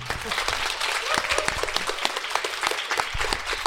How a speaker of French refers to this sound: Vous pouvez l'applaudir à nouveau.